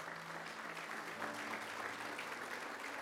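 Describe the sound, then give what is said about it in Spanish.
A crowd claps steadily for a few seconds, a dense wash of many hands applauding at an even, fairly loud level with no pauses. “aplaudámosle al Señor, gloria al Señor.”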